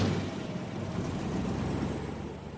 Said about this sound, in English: boat's engine started. No, no. Vale was not driving this tug out to sea.